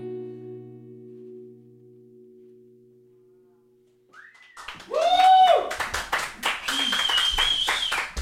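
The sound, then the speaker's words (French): A sustained musical note fades out, then an audience bursts into dense, loud applause with scattered cheers and whistles after a live performance, continuing steadily to the end. “vous pouvez encore l'applaudir.”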